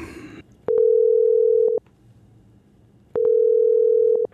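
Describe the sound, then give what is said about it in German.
Two long, steady electronic tones about a second each, separated by a pause, the ringback a caller hears while a phone rings on the other end during an outgoing call to a mother-in-law; clear with no talking over it. “Und wir Leute jetzt schnell an. Sag dir nicht, wer es ist. Du hörst es am Abnehmen.”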